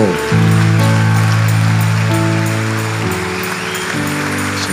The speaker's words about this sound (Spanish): Si el aplauso para Dios, dáselo.